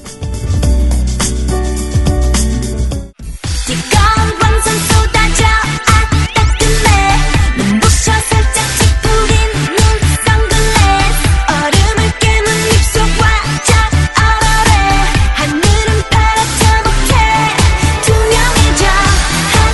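A K-pop song plays loudly, opening with a short three-second intro, a brief cut, then a dense, full-band track with a driving, steady beat that continues throughout.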